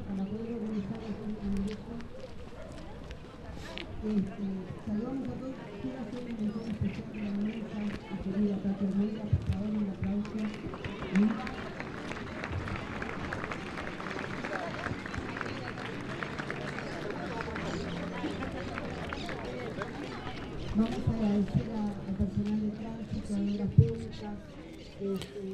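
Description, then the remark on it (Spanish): A crowd gathered outdoors at the gate of the prison in Rawson on a sunny, slightly cool day, with many voices talking and murmuring at once, steady, plus scattered footsteps and a few faint bird calls in the background. “Esto que estás escuchando lo grabamos con mi hermano en la puerta del penal de Rawson.”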